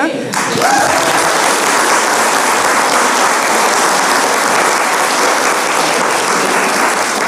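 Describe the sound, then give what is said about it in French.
Sustained audience applause, given in place of a minute of silence, a dense, steady wash of many hands clapping that rises quickly and holds at an even, loud level for about seven seconds without pause. “Donc, je vous, offre la possibilité, soit on fait peut-être une minute de silence ou alors une bonne main d'applaudissement.”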